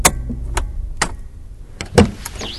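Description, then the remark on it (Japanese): Sharp clicks and thumps of a car just arrived and parked in the Sawando parking lot near Kamikochi: a door latch, a few mechanical knocks, then a louder clunk and a brief whirring sweep as the driver gets out of the car. “車はサワンドの駐車場に到着した”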